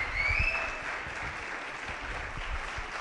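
Dense, steady applause from a radio audience practicing loud applause fills the whole clip at an even level, with a brief rising whistle cutting through the clapping near the start.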